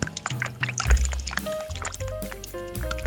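Jacuzzi water splashes and bubbles, a steady churning with irregular sloshes and a low rumble of jets underneath, moderately loud throughout with no voices.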